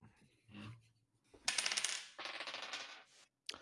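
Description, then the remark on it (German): Dice are rolled for a dogfight roll (Kurvenkampfwurf) in a game, clattering and rattling across a hard surface in a quick burst of bright, rapid clicks, settling after a couple of seconds, followed by one last sharp tap. “Okay, dann einen Kurvenkampfwurf bitte.”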